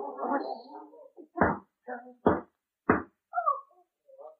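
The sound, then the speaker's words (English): Someone at the door knocks on it three times, sharp and heavy, slow and evenly spaced. A murmuring voice comes before the knocks, and brief vocal sounds follow them. “Ah, oh, it's just somebody at the door.”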